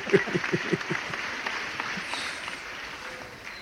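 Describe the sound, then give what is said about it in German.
A burst of applause played back through an audio cable, dense clapping that starts with a few sharper claps and then settles into a steady, moderately loud wash before thinning slightly toward the end. “so, nachdem du jetzt äh, zwei Wochen vergeblich deinen Applaus erwartet hast, habe ich dir die Freude gemacht.”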